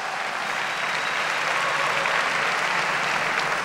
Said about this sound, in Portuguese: Você pode dar uma salva de palmas para Jesus bem forte?